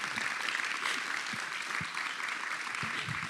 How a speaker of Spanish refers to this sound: partamos dándole un aplauso a Julio por la pega